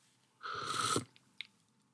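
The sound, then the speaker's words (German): A quick, hissing slurp of drink lasting about half a second, followed by two faint, soft clicks of swallowing, with no voices. “Drei, eins. Eins. Schluck. Schluck.”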